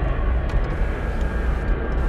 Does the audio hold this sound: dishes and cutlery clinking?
no